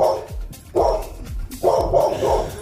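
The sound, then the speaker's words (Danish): A dog barks repeatedly in a quick, uneven series of sharp, mid-pitched woofs, fairly loud with no one talking. “Og det var så lige øh, direkte oversat til hundesprog.”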